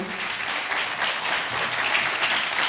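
Steady concert audience applause as the musicians are introduced on stage, many hands clapping in a dense, sustained wash of sound at an even loudness throughout, with no voices over it.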